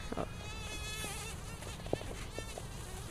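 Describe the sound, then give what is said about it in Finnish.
A common carder bumblebee queen buzzes steadily inside an insect net, its drone wavering in pitch throughout, with a few faint clicks and rustles of handling. “Konttukimalaiskuningatar.”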